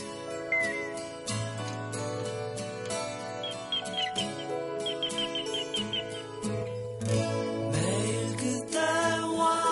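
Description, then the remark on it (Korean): A full band song plays with bright, chirpy high guitar notes mimicking birdsong, short twittering flourishes repeating over steady bass and rhythm throughout. “새소리라고 하시는데 이거 기타로 내는 소리예요.”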